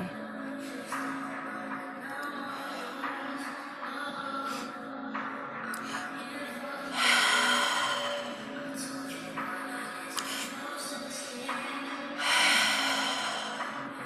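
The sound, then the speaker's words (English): Slow, deep breaths drawn in and pushed out, each breath a soft airy rush, with two fuller swells standing out in an unhurried, steady rhythm, as a person does a deep-breathing exercise of big inhales and sighs. “Big inhale. And just continue to do that breathing over and over again to a rhythm that's comfortable for you.”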